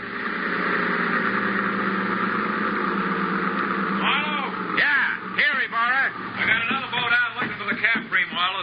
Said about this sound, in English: Oh, wait a minute. Wait a minute. That boat coming in is probably Barra.